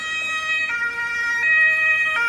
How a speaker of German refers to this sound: Es war gerade stressig mit dem Krankenwagen, weil man nicht genau wusste, wo der her sollte und gleichzeitig ist hat grün bin immer verunsichert, weil man ja nicht weiß, auch wie die Autos darauf reagieren.